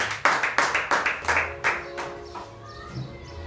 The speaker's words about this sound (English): I want us to clap for the first team. Thank you for the powerful worship session. Let's clap for them. We can do better. Let's clap for them.